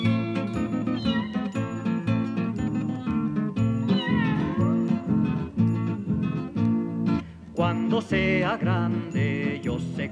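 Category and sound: animal, kitten meowing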